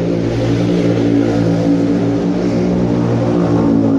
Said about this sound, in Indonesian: jadi emang iklannya itu uh, suara motor gitu